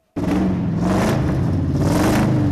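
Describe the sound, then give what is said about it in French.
The V8 engine of a 1963 Oldsmobile coupé cabriolet, the car of the Gendarmes de Saint-Tropez films, starts up abruptly and keeps rumbling loudly with a steady, throaty growl and slight revving swells, continuous for a couple of seconds. “Voilà qui va sûrement vous rappeler des souvenirs, les fameux gendarmes de Saint-Tropez avec un drôle de moteur que vous avez entendu gronder cette semaine dans la matinale d'Europe 1 et une voiture mythique à vendre.”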